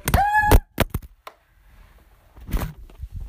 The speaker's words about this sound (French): mon téléphone vient actuellement de tomber par terre, ça va, il a rien. Enfin, de toute façon, il est déjà tellement pété que bon.